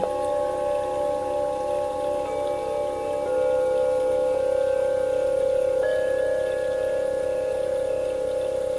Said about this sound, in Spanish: cerca de donde estás corre un pequeño arroyo. Puede oírse.